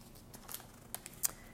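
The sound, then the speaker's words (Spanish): Thin, sticky book pages being turned to the Book of Acts and peeled apart, with a few soft crinkling rustles and papery snaps, quiet and brief, no talking. “Estas hojas se pegan mucho, aleluya.”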